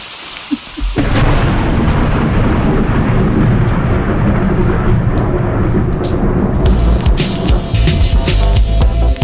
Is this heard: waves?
no